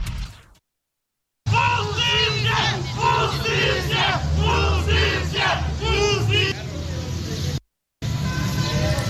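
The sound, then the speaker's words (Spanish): A large crowd of protesters demanding justice while blocking the México-Cuernavaca highway at the access to Mexico City chants and shouts loudly, voices rising in rhythmic bursts, with a brief silent break before the chanting resumes. “Está en este momento bloqueados por manifestantes que exigen justicia para”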